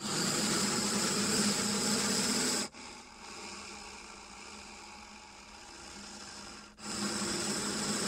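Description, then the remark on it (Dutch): A heavy, mechanical breathing sound effect from a sound effects record, a bit like Darth: a loud, rasping hiss of an inhale, a quieter hollow exhale-like stretch, then another loud hissing breath. Steady and rhythmic, with no voices. “Beetje Darth Ja, dat was een stukje.”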